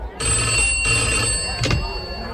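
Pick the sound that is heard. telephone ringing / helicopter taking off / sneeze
telephone ringing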